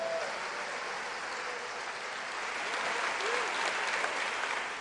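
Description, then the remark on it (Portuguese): Sustained audience applause glorifying the Lord, a dense steady wash of many hands clapping at an even loudness throughout, with no voices standing out above it. “Aplaude e glorifique ao Senhor.”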